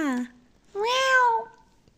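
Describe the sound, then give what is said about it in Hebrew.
The cat Parpur yowls twice from inside a suitcase: a short wail that slides downward, a brief pause, then a longer, louder, high-pitched cry that rises and falls away. No one speaks. “ואז פתאום נשמעה מתוך המזוודה שלה לא, לא, לא, יללה.”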